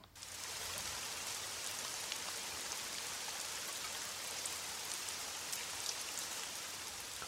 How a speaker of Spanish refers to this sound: La lluvia es uno de los fenómenos del medio ambiente más comunes y al mismo tiempo más sorprendentes, aún dentro de su simpleza. En términos científicos, la lluvia no es más que la precipitación de agua desde las nubes hacia el suelo, hacia la tierra